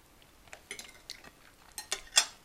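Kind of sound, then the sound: food or drink, cutlery and dishes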